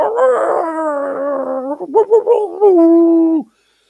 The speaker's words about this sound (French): Quand ils se furent ainsi installés, à un signal donné, ils commencèrent leur musique. L'âne braillait, le chien aboyait, le chat miaulait et le coq chantait.